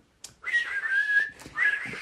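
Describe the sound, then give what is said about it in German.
A person whistles a short melodic harmony line, the second or third voice to a song in their head, two sustained wavering phrases separated by a brief breath, with no talking. “Das Ding ist, das Ding ist, ich pfeife ja die zweite oder die, die zweite oder dritte Stimme zu dem Lied, was im Kopf bei mir gerade abgeht.”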